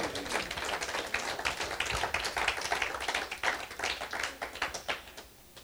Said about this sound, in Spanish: Aleluya. Dale un aplauso fuerte al Rey.